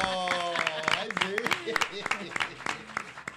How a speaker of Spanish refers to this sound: Yo quiero pedir un aplauso para todos. Aplauso, perfecto